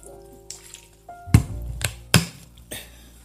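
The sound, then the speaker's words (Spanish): A wet lifting sound as a tea bag is lifted out of heated water after steeping, followed by a few scattered drips and small splashes, with two sharper dripping impacts standing out against a quiet background. “saquito de té dejar 10 minutos y sacarlo, como estoy haciendo en este preciso momento, porque yo ya el té lo tenía calentado y empecé a grabar este podcast eh, mientras el saquito estaba en el agua.”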